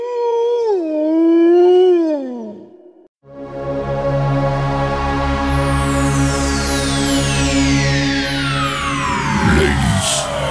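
A wolf gives one long, wavering howl that rises and dips for about three seconds, then breaks off. A loud, dense rumbling drone with falling sweeps takes over.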